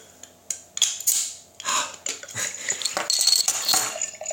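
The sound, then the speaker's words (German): A bottle of rum from Ghana, aged two years in a barrel, being opened: a run of sharp clicks, crackly scraping and glassy clinks, with a few louder snapping bursts, and no talking. “Ich mach's mal auf. Genau, ich mach's mal auch auf. Das Geräusch auch schon schön.”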